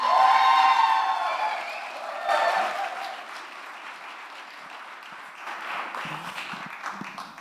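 A crowd applauds steadily while high, tonal cheers and whoops ring out at the start. The clapping fades slightly, swells briefly around the middle, then continues at a lower level.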